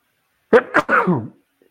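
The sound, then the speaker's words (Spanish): A single sudden sneeze with a sharp burst of breath, trailing into a short voiced sound before falling quiet. “Salud.”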